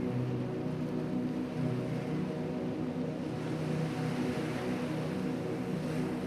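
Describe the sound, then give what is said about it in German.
Rough sea on the coast of Normandy in northern France at night churns in a constant, loud rushing wash with no pauses, a low droning hum running steadily underneath; no voices are heard. “Hörst du die raue See?”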